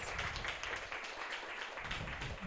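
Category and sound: crowd, round of applause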